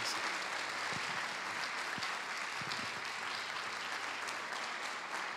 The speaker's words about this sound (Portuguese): louvo a Deus pela sua vida e eu quero que vocês aplaudam o pastor Samuel bem forte. Pode subir aqui.